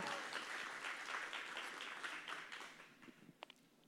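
Audience applause, a dense wash of many hands clapping steadily, then thinning out toward the end with a few scattered last claps.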